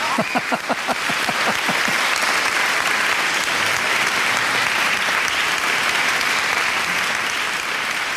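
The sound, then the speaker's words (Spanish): Loud, dense applause from a crowd, recorded at a concert, steady throughout, with a few sharp rhythmic claps or voice-like tones standing out in the opening second or two before the clapping settles into a continuous wash. “Que solo pueden, pueden aplaudir cuatro personas, desgraciado.”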